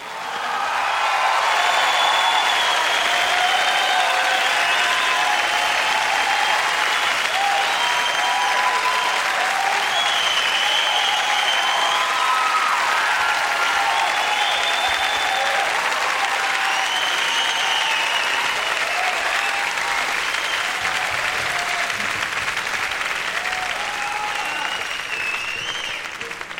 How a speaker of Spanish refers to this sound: Hoy quiero empezar agradeciendo a todos esos programas que dedican su contenido a descubrir nuevas formaciones, porque gracias a ellos la rueda sigue girando. Así que este aplauso va para vosotros.